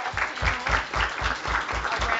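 A round of audience applause at a public discussion on fair housing, steady and fairly loud, with dense overlapping claps forming a continuous wash and a slight rhythmic pulse running through it.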